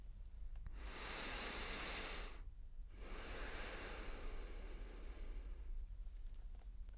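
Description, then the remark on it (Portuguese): Airy breathing through the left nostril: two long, steady breaths separated by a brief pause, with a soft hissing rush of air and no talking. “Esta foi narina esquerda, exatamente.”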